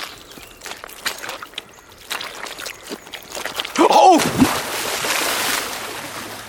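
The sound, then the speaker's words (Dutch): Squelching steps through a wet peat bog with sphagnum moss floating on the water, then a sudden splash as someone plunges into the soggy bog, followed by sloshing and wet churning as they struggle in the water. “Het veen had bijna een nieuw slachtoffer gemaakt.”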